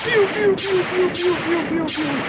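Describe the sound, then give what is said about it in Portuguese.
Three sci-fi laser blaster shots from a Star Wars first-person shooter game, each a sharp zap that sweeps quickly downward, fired at a steady pace over a sustained humming tone. “Você dá o tiro e a arma, ela não tem coice. O efeito sonoro é aquele laserzinho.”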